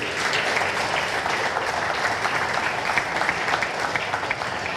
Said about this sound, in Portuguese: Aplauda Jesus porque ele merece.